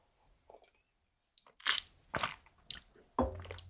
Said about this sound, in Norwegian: Når jeg prata litt for mye, jeg må ta en slurk vann.